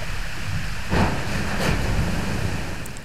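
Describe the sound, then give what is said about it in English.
A chunk of glacier ice calves and crashes down into water, giving a couple of broad, rushing splashes over a steady roar of surf and wind, with no voices; a recording used by scientists to track changes in glaciers. “We're going under a glacier, on top of a melting shelf of ice, and next to a falling hunk of glacier.”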